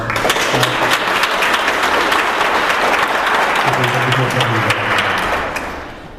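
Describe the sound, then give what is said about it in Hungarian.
Sustained audience applause, a dense, steady patter of many clapping hands lasting several seconds before tapering off at the end, with faint murmuring voices mixed underneath. “De, de nem baj, mert neki egy tapsot tesárban.”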